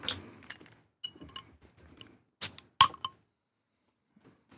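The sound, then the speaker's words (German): A slim 33 cl beer bottle with a blue label is opened: a few light glassy clinks and metallic clicks, then two sharp cap pops with only a brief, faint hiss, less than a cider's, followed by quiet. “Und ich würde sagen, wir dürfen auch die aufmachen, oder?”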